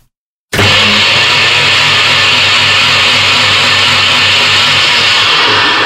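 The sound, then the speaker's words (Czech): A blender making a smoothie kicks on abruptly after a brief silence and runs at full power, a loud, steady grinding whir with a low motor hum and harsh high-pitched racket throughout, no voices. “A dělá to rachot.”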